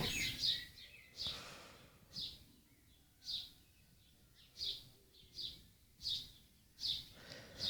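Birds singing softly, short high chirps repeating roughly once a second over a quiet, low rumbling background with no voices.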